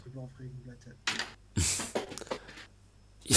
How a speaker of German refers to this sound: da ist was geflogen. Das war aus Versehen tatsächlich. okay, ich wollte gerade schon sagen. Ich habe den Stift in der Hand, ich habe den Kopf zugeschlagen und es ist mir dann aus der Hand gerutscht.